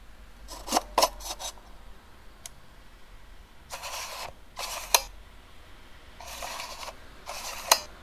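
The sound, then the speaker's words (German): A View-Master viewer being clicked: three separate bursts of short mechanical clacks and ratcheting slides, each pair ending in a sharp snap, with quiet pauses between and no voices. “Das ist ein sogenannter Viewmaster.”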